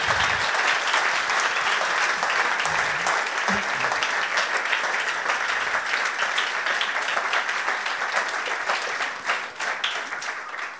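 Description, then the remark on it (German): A crowd applauds steadily for about ten seconds for the people in the room who have been doing it for many years, many hands clapping in a dense, even wash of sound that stays loud throughout, with no voices standing out. “Und deswegen lasst uns all diesen im Raum einen Applaus geben, die es seit vielen Jahren machen.”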